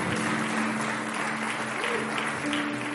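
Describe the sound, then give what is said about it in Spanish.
Sustained audience applause, a dense, steady wash of clapping filling all three seconds at an even loudness, with a faint tonal hum running underneath. “Yo no sé si alguien le puede dar un fuerte aplauso al Señor.”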